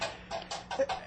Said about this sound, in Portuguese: que barulho é esse? Ele aproximou-se da janela e. É galope de cavalo, sinhá!